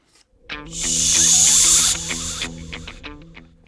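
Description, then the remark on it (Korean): A loud shushing hiss made through the lips, imitated by a voice, as a woman raises her long index finger to her lips to quiet a passenger in the seat ahead talking on the phone, swelling in and holding for about two seconds before cutting off, with a steady low tonal drone underneath. “그저 본인의 기다란 집게 손가락을 쭉 세워서는 자신의 입술 한가운데로 가져갔고 동시에 입술에서는 강한 바람 소리가 새어나왔죠”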